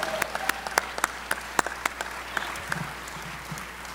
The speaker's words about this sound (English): Let's give them a big, huge round of applause and welcome to Omaha.